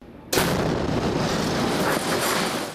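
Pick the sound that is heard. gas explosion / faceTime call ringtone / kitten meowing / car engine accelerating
gas explosion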